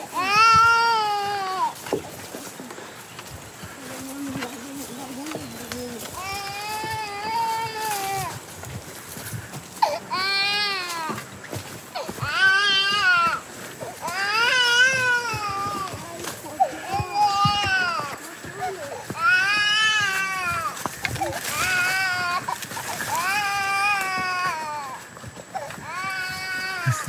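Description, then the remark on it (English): Children in the jungle wail in repeated, drawn-out bursts, about ten cries over the span, loud, each rising and falling in pitch with only short breaths between them. “Crying kids.”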